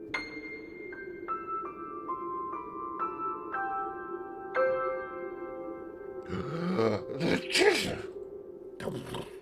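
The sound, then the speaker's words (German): A loud, breathy sneeze with snorting, grunting build-up bursts out near the end, after several seconds of soft descending chime-like tones over a low hum. “Gesundheit.”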